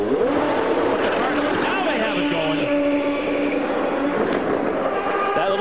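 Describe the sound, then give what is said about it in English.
A loud Champ Car race car engine roars steadily, its pitch climbing and dipping as it revs up over a noisy wash of sound, with voices talking faintly underneath. “The engine's coming up.”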